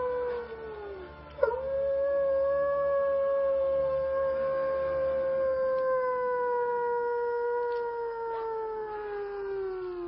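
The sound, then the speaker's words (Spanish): A long, loud werewolf howl sound effect rises after a brief sharp onset and holds a steady, slowly falling wail for several seconds, clear, with no talking over it. “y ahora llega con nosotros ese gran especialista en ajedrez e informática que en noches como esta y con luna llena se transforma en hombre lobo”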